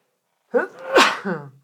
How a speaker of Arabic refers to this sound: عطسه بالبرنامج رحمك الله